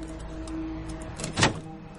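A metal bar is inserted into the door of a Ford Crown parked in front of a police station and worked at the lock: a low mechanical rattle builds into one sharp, loud scraping clunk, then fades back to a quiet steady hum.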